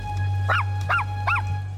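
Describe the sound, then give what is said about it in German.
A small white-and-brown spotted female Parson Russell Terrier in a forest gives three short, high barks, evenly spaced about half a second apart, moderately loud over a steady low background hum, as she runs toward the undergrowth. “Der Parson Russell Terrier rennt wieder zum Unterholz.”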